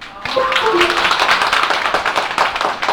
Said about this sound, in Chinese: 好，感谢大家稀稀拉拉的掌声啊。